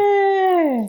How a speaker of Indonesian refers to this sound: itu suara anak kecil ya